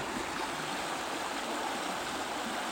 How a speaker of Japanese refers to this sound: 北海道の釧路に来ております、えー、鶴居村というところにある釣り、えー、サウナキャビンズというところにお邪魔していて、えー、そちらで、え体験もさせていただいてるんですけど、えキャビンのそばにあるですね釧路川音聞こえますかね